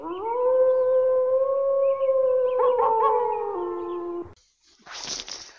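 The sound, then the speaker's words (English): Wolves howling in a long, steady, loud chorus of overlapping voices, lasting about four seconds before cutting off, followed by a brief burst of hissing noise. “I'm cold, and there are wolves after me.”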